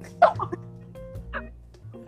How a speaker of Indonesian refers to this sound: Aduh, jadi batuk dulu jadi semoga nggak takut ya kalau aku batuk